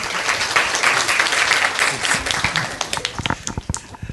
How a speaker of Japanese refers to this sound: 質問者に拍手をお願いします。